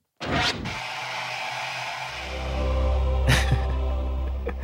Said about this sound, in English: I like the like the static sound. That, yeah, the, the white noise.